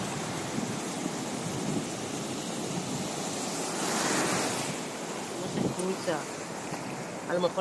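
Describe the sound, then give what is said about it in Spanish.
Ocean waves wash steadily onto a beach in a broad, continuous roar that swells near the middle, with wind buffeting the microphone and faint voices briefly audible toward the end. “¿Es la playa?”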